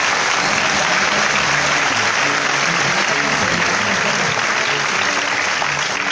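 Loud, sustained audience applause fills the whole six seconds, a dense steady wash of many hands clapping with no pauses and no talking.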